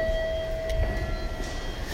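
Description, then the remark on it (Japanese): A stationary four-car local train bound for Hamamatsu, due to leave at 22:51, idles at platform 8 of a Japanese station. Its steady electrical hum and a sustained tonal whine make a constant low rumble over faint station ambience. “8番線に停車中の列車は22時51分発普通浜松行きですこの列車は4両です”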